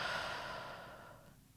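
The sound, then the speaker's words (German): A long, deep exhalation, a breathy airy rush that starts strong and gradually fades out over a second or so, with no talking. “Ein bisschen nervös sind wir ja schon, also tief einatmen und wieder ausatmen.”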